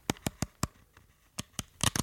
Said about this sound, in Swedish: Så nu ska det inte vara lika prassligt, utan lite mer så här, den här känslan. Ni vet, man... Ja, ni hör pappren här.